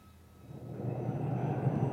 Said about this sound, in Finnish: Tämä hurina ja vihellys on ensimmäisestä niistä MiG-21-tyyppisistä torjuntahävittäjistä, jotka Suomi on Neuvostoliitosta ostanut ja joista kymmenen koneen sarja saapui tänään Kuopion Rissalan lentokentälle.